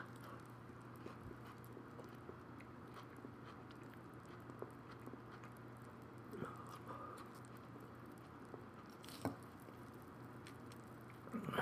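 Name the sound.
biting and chewing food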